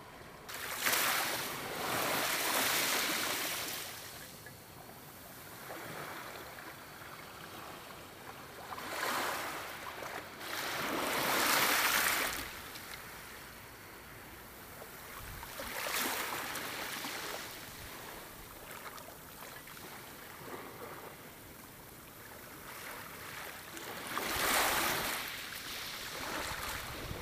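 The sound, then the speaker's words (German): Ocean surf washing in continuously, with broad rushing swells that rise and fall every few seconds, steady, with a faint wind-like hiss beneath and no voices. “Das ist schön, dass du versuchst, es wieder harmonisch ausklingen zu lassen, aber ich brauche jetzt trotzdem nochmal ein Meeresrauschen.”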